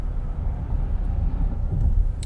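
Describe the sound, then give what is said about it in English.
Steady low-frequency rumble of a car cabin while driving, a constant engine and road drone with faint wind buffeting, no voices present. “I hope you're enjoying this as much as we are here in this car.”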